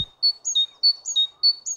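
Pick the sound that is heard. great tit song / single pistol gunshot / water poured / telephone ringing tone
great tit song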